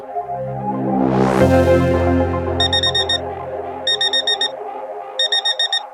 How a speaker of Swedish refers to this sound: Du vaknar upp av att väckarklockan piper. Klockan är sju på morgonen när du yrvaket stänger av den.